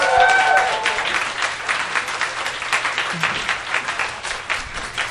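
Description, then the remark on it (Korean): An audience claps steadily for about five seconds, a dense, even patter of many hands with no voices over it, holding fairly loud before easing slightly at the end, welcoming a psychology PhD guest introduced on stage. “박수 환영해 주세요.”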